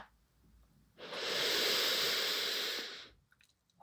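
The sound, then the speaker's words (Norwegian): A single long, deep inhalation during a breathing exercise with hands on the belly, breathing in for a count of four; a steady, breathy rush of air lasting about two seconds before fading into quiet. “Ta en djup innpust. Pust inn fire.”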